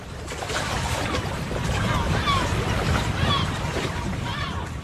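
Mediterranean sea waves breaking at a small bay between two cliffs on Lampedusa in sunlight, a steady, rushing wash of surf with faint wind noise and a few thin, high chirps drifting above.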